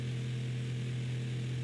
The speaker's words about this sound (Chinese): 于是把原本掉落的风扇插头插到插座上，他还没来得及按开关，风扇已经转动了起来。